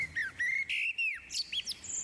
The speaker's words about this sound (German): Das hier ist zum Beispiel eine Amsel.